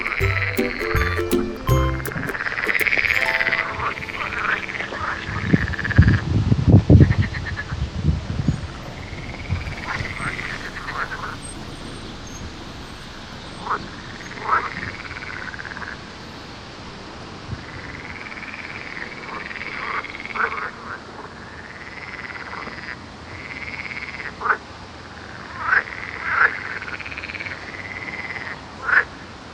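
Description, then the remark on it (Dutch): A chorus of frogs or toads in Vlissingen, Netherlands, croaks repeatedly in short, bright bursts over a steady outdoor background, some calls loud, others fainter, with a brief low rumble early on. “En nog even luisteren naar dat gekwaak, kwaak, kwaak van de kikkers of de padden in Vlissingen.”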